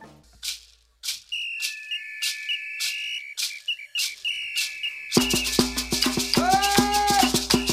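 A song intro opens with steady, evenly spaced percussion taps under a high, sustained whistle-like melody, then a full band enters loudly partway through. No singing yet.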